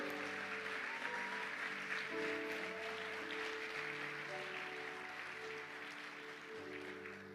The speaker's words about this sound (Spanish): Aleluya, dale fuertes aplausos al Señor.